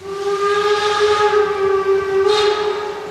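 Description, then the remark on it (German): The whistle of a narrow-gauge steam locomotive at Binz on the island of Rügen, Germany, blows one long, loud, steady note lasting the whole clip, with a burst of hissing steam rising near the end. No one speaks. “Rasender Roland, so heißt nämlich diese Schmalspurbahn, die hier über die Insel Rügen fährt.”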